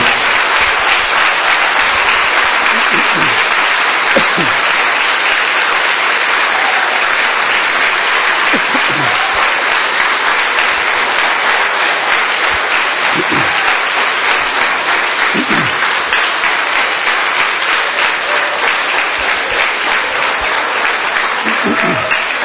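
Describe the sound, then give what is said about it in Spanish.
An audience at a religious service applauds steadily for over twenty seconds in triumphal applause for the Divine Father, Jehovah of hosts, a dense, even wash of many hands clapping at a constant loudness, with brief low vocal sounds surfacing now and then beneath it. “Palmas triunfales para el Divino Padre, Jehová de los ejércitos.”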